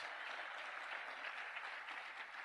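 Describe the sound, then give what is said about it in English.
A crowd claps their hands steadily in rejoicing when told to clap, many hands blending into a dense, continuous patter of applause that holds at an even level throughout, with no voices standing out. “Now clap your hands.”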